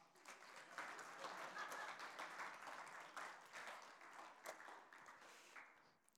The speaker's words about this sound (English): Can we give him a clap?